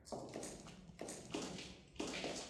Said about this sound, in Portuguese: Vocês escutam os passos de dois soldados caminhando pelo corredor.